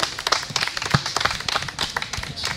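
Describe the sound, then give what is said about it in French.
An audience claps steadily for the children who presented and produced a radio broadcast, a dense patter of many hands with sharp individual slaps standing out. The applause stays fairly loud and even throughout, with no voices rising above it. “Euh, on peut les applaudir très fort parce qu'ils ont vraiment bien travaillé.”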